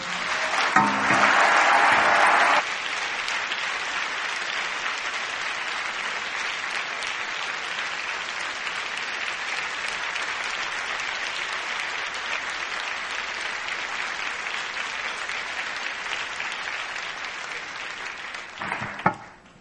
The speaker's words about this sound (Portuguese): Vamos agradecer o culto com um aplauso de gratidão.